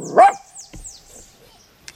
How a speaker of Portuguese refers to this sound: Porque tem cachorros latindo.